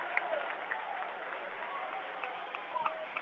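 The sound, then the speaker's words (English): A steady, roaring crowd fills an indoor gym at a basketball game, a dense wash of cheering and clapping with no breaks, with faint squeaks and individual shouts popping out now and then. “Why is everybody sitting on their teasters for the Blue Devil faithful? Lowville so much louder.”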